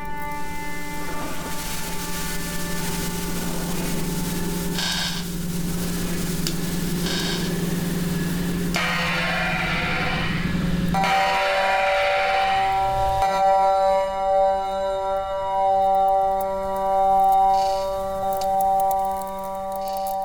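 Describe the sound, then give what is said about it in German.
A sound art composition by Johannes S. Sistermann, made for the Kreuzkirche and played through loudspeakers set up in the church: sustained droning tones and hissing, steam-like noise bursts, shifting midway into layered, whistle-like pitches that swell and fade. Moderately loud, no voices. “Sie haben da eine auch schon eine spezielle Komposition, die wir jetzt auch einspielen können.”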